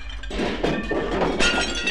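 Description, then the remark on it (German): A heavy thud as a figure topples forward onto a table, knocking a plate to the floor where it smashes, shards of crockery clattering and tinkling for a moment, loud, with no voices. “Eine der Figuren hinter ihm kippte mit einem satten Knall nach vorne auf den Tisch und warf dabei einen der Teller auf den Boden.”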